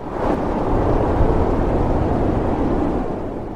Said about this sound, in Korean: 수많은 여인들의 통곡하는 소리가 들렸다. 그건 울부짖음을 닮은 눈바람.